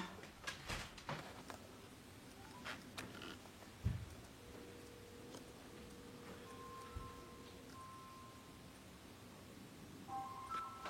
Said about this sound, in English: The phone, oh, it's ringing from the, sounds like ringing from the bedroom. This is her phone.